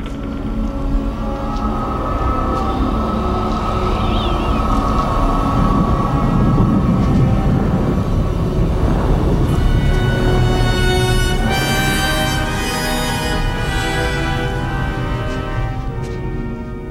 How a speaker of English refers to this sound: As Indy and Sallah lift up the Ark, the Ark theme plays, but there's almost this lion's roar and more wind and more exhaling breath in the sound design as they lift up the golden ark from its tomb.